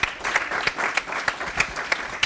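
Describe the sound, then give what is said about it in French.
An audience applauds steadily to thank two people, a dense wash of clapping with a few sharper claps standing out at regular moments over about two seconds, with no voices. “Je propose qu'on les applaudisse pour les remercier.”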